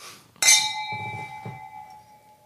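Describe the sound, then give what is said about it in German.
Wine glasses clink together once in a toast before tasting a Spätlese wine, a bright ringing chime that lingers and slowly fades, with soft low thumps and rustling underneath. “Dann probieren wir es mal, oder? Jawohl, zum Wohl.”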